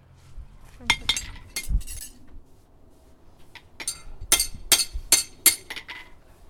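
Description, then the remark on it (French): A farrier hammers unworn metal horseshoes to clean and reshape them, a few scattered strikes followed by a steadier run of sharp, bright clanks with a high metallic ring. There is no talking. “Là, euh, bah, si tu veux, les faire étant donné qu'ils sont pas usés, je les nettoie un petit peu là, et puis je les remets en forme.”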